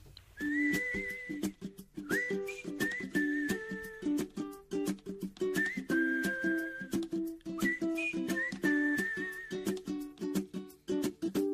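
A bright whistled melody floats over an upbeat pop band with steady drums and strummed chords, the whistling carrying the tune in clear, sustained phrases with no singing.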